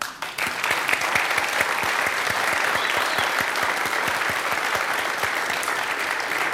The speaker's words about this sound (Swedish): Så nu ger vi dem en applåd.